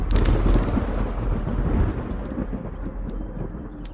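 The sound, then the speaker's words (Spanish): A deep, rumbling roll of thunder fills the air, loud and sustained, slowly fading over a few seconds with a steady wash of rain beneath it. “Era una tarde nublada por una tormenta amenazante en el cielo, como la de hoy, pero en la hermosa isla de Pátzcuaro.”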